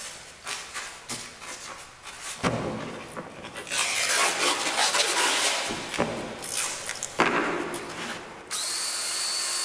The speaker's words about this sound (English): I hear you were laughing nervously because you too could hear that the drill was a little bit sharp. The intonation was a little questionable.